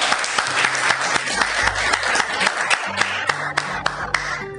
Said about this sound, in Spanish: ¡Wow! ¡Epa! ¡Aplauso!